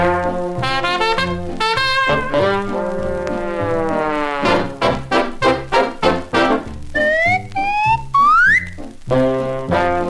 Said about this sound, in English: and when it comes around to where the whistle blows, we'll stop, and you make the proper sound.